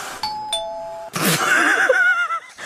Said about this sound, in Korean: 아니 이거 정육점 소리 아니에요? 이게 무슨 스미스 머신 소리라는 거야? 아니, 이거 정육점에서 고기 자를 때 나오는 소리 아니냐고요. 어, 아, 진짜 스미스 머신 기계 소리예요.